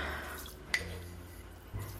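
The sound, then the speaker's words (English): A good amount of salt is dropped into a big pot of water for cooking pasta, making one short, sharp plink against a quiet, low room hum, followed by a faint soft rustle near the end. “I'm going to add a good amount of salt to the water”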